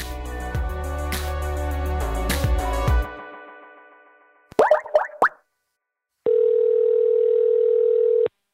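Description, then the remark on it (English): A telephone dial tone on an outgoing call: a steady, buzzy tone holds for about two seconds, after a burst of electronic tones and a few quick plopping blips. No one speaks. “But there is one call I need to make before any of that happens, since this episode will directly and indirectly refer to Emma Sulkowicz's story.”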